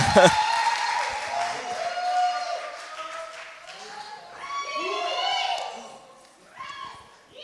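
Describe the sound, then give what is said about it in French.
An audience of young people bursts into sustained applause with cheering and whooping voices to welcome a pastor as speaker, a dense wash of clapping that swells and holds for several seconds before tapering slightly. “Alors, est-ce qu'on peut l'accueillir avec des grands applaudissements”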